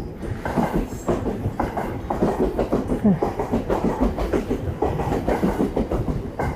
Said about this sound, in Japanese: あとちょっと今ここね、電車沿いの近くだったりするんで、急にガタガタガタガタっていうね、言ったりもするんじゃないかなと思いますが、はい。よいしょ。なんかね、あの、そうそう、電車で、ちょっとこういろいろ振り返りしながら思ってたんですけど、あ、やっぱり電車が来ましたね。